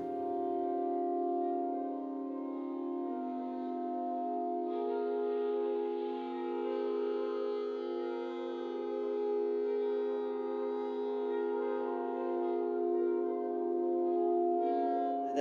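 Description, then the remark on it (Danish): Two church bells in the bell tower of Simeons Kirke hum and resonate beneath a slow saxophone melody, recorded through contact microphones on the bells, which amplify especially the notes A and E, their own fundamental tones. The tones are sustained and overlapping in a long, reverberant wash with no talking, steady in loudness throughout. “Klokkerne resonerer med saxofonens melodi, men forstærker især de to toner A og E, som er klokkernes egne grundtoner.”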